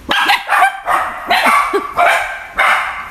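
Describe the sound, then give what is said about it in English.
Dogs bark loudly, a rapid run of about six sharp, overlapping barks with brief gaps between them, and no voices over the top. “Well, the dogs think so.”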